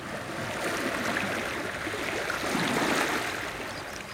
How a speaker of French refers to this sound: Quand la mer est là, et quand elle est forte, là on est dans une ambiance même. Et lorsque la vague joue avec les, rochers.